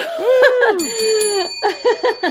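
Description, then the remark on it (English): A couple of bright bell rings chime, their high tones lingering, mixed with short gliding vocal sounds like cheerful laughter. “a couple of bell rings, yeah.”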